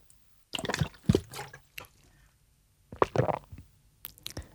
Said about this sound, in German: Ja, ist ähnlich laut. Das ist doch ganz normale Schlucken,